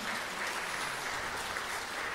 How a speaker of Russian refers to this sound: Пожалуйста, аплодисменты.